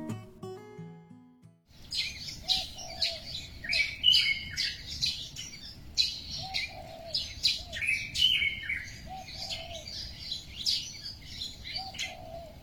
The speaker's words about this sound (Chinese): 那除了雨声，窗外的鸟鸣声也是这次投稿中的热门选题。下面先让我们来听一段鸟鸣声。